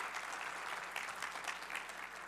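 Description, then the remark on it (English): Steady audience applause for the speaker's assistants, many hands clapping together in a dense, sustained wash of sound that holds at an even level throughout, fairly quiet, with no voices standing out. “I would like for my lovely assistants to get a great round of applause.”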